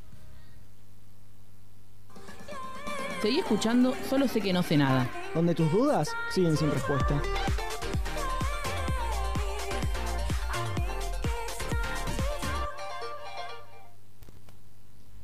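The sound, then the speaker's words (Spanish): A short musical jingle used as a segment separator, with bright, bell-like melodic tones and a steady beat, with a voice speaking over it, ending abruptly after about ten seconds. “Vamos a un separadorcito.”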